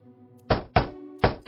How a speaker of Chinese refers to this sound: 敲门声越来越响，说明敲门的人越来越烦躁。可是连续不断的敲门声也搞得干球心情非常不爽。